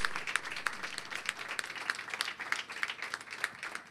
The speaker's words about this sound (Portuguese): Dê uma linda salva de palmas a Jesus. Glória a Deus.